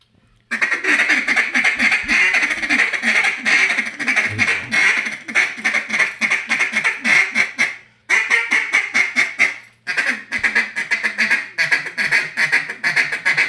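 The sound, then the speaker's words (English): A person blows an aggressive, Arkansas-style chatter on a duck call: rapid, loud quacking chatter runs nearly continuously in fast bursts, with a brief pause around the middle before the aggressive calling resumes, intense. “This is a, uh, an aggressive chatter for me.”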